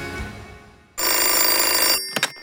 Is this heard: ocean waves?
no